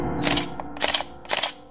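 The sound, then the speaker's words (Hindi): A camera shutter clicks three times in steady succession, each snap crisp, with a low, sustained musical drone humming underneath. “और पूरे वक्त कैमरा की एक आवाज होती रही”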